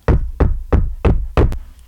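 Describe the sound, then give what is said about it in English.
Five firm, evenly spaced knocks on a wooden surface, loud, each a sharp thud with a quick decay, with no voices around them. “I wish injury upon no man, knock on wood.”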